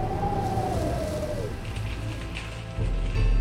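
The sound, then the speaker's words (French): Whistling wind: a thin, steady whistle slides gradually downward and fades after a second or so, over a constant rushing hiss and low rumble. Nobody speaks. “Nouveau vent sifflant.”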